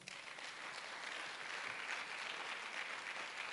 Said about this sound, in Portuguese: Amém? Então aplauda ao Senhor.